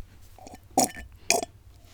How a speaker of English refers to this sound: we're going to ask you to sit back, relax, maybe slurp a milkshake like I'm doing right now